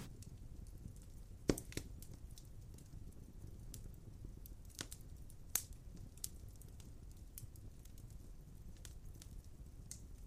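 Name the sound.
fireplace fire crackling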